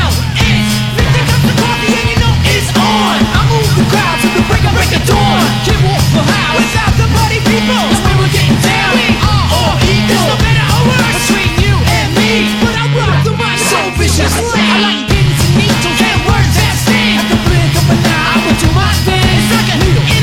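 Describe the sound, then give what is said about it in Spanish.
A loud hip-hop track with a punchy, repeating bass groove and rough, shouted vocals riding on top, playing continuously. “Gritan mucho, siempre gritan.”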